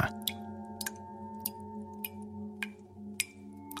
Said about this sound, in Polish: Właśnie kończyłam myć ręce, kiedy rozległo się głośne kapanie z wanny ustawionej zaraz pod oknem.